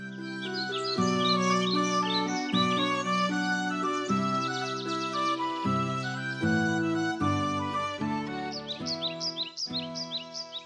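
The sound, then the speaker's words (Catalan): Birds chirp and tweet steadily in a forest-like setting, layered over a continuous bed of gentle melodic music with sustained notes, with no talking. “Aquesta faula té lloc al bosc.”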